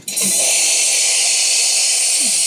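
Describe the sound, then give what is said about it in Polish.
A coffee machine's steam wand bursts into a loud, steady hiss of steam that starts abruptly and continues without pause, bright, with only faint low rumbles underneath. “Nie martw się, para ci nie poleci.”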